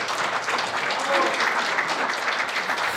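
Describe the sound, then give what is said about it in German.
A small group of complainants on the left side of a courtroom claps at the end of a court hearing, a dense, steady patter of many hands at moderate volume that carries on evenly for the whole few seconds without building or fading. “dass am Schluss geklatscht wurde”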